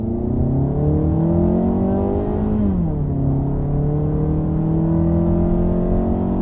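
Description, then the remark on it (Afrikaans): The 2-litre, 115 kW engine of a CX-3 crossover drones steadily and grows loud under throttle, its pitch climbing under acceleration, then dropping sharply around a gear change before building again, with constant road noise. “Die masjien raak egter lydrigtig wanneer jy vet gee.”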